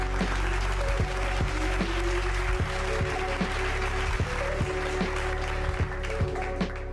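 A round of applause: dense, steady clapping at an even loudness through all seven seconds, with a regular low thumping beat and sustained tones running underneath.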